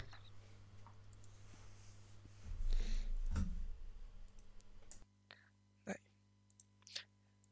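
A handful of sharp computer mouse clicks land at irregular intervals over a steady low hum, with a brief stretch of shuffling handling noise partway through.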